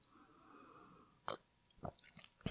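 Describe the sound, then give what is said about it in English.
Someone sips Apex coffee in the morning, with a few short, quiet slurping and swallowing sounds over a faint background hum, and no talking. “Wait, let me take a sip of my Apex coffee.”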